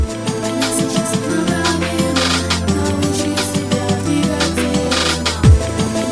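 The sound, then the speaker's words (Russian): An upbeat dance pop track from a cassette compilation, with a steady, punchy beat and a woman's voice singing about teaching you to move your body over a full, bright mix, loud throughout. “Она поет, у меня сейчас одна проблема научить тебя двигать телом. Я не знаю такой песни.”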